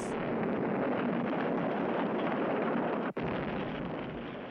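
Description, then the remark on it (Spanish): A loud, continuous roaring explosion of a mansion, repeated from a 1970 film soundtrack and blending with rock music, dense and rumbling like a sustained blast. It cuts out for an instant, then the roar resumes at full strength, with no voices. “escuchamos el sonido repetido de la explosión de la mansión que se funde con la música de …”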